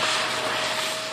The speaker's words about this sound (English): me vacuuming my apartment.